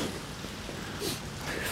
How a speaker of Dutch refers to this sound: Hier heb je weer een, een buis die ook... Dat geeft nu nog het vals gevoel van regen.